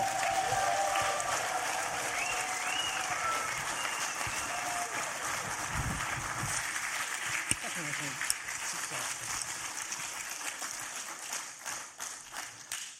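Thunderous applause from a large crowd welcoming a guest speaker in the evening, a dense, steady roar of clapping that holds strong throughout before starting to break into more separate claps near the end.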